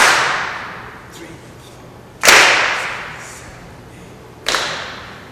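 Three loud, sharp hand claps land at a slow, steady pace, about two seconds apart, marking beats while counting aloud, each one trailing off in a brief ringing decay, with no talking between them.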